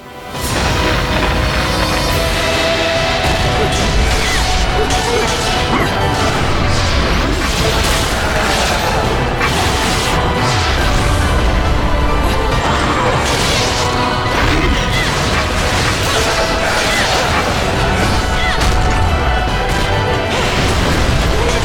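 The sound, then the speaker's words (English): Continuous loud video game destruction as the ground is smashed apart out from under the player: dense crashing, thudding and crumbling impacts piling on top of each other with no pauses, filling the whole stretch. “Ah, it's destroying the ground out from under us.”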